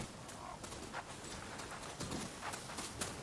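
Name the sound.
horse hooves clip-clopping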